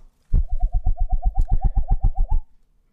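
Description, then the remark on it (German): A voice imitates the second part of a dripping water drop with about fourteen quick, hollow mouth pops in a steady, rapid rhythm, fairly loud, with no talking. “So kannst du das Geräusch mal machen von dem, also der zweite Teil des Tropfens.”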